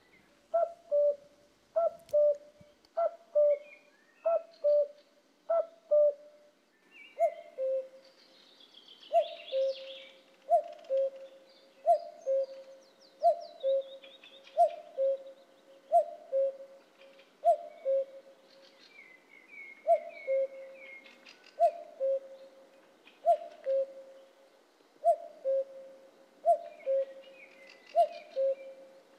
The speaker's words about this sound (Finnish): Siinä oli jännä miksaus. Oliko tuo keskimmäinen kohta, niin oliko se niin kuin ihan oikea käki? Mun mielestä se kuulosti. Joo, kyllä se kuulosti oikealta käältä